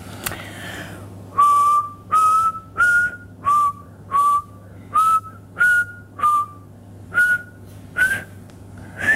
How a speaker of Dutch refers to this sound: Beter dan dat kan ik niet fluiten. Maar toch, ik hoor wel een melodie. Ik herken zelfs de song.